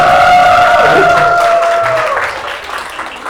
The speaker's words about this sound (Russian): А, вот он, вот он, вот он, аплодисменты!